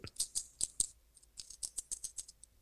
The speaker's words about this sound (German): Ich wollte meine letzten drei Münzen, meine letzten acht Cent, die ich noch in der Tasche hatte, wollte ich klappern lassen, dass es nach viel Geld klingt.